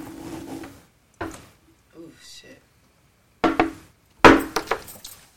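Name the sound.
shot glasses clinking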